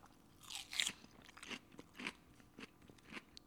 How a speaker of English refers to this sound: So you can hear the crunch of that romaine that substitutes in for corn chips.